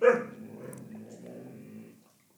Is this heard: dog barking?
yes